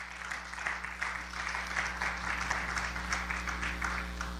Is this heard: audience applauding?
yes